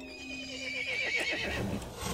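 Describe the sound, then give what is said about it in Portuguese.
A horse lets out a loud whinny, starting high and shrill then breaking into a shaky, descending neigh with rough snorting at the end, no voices present. “O cavalo ficou irritado e chamou os outros monstros.”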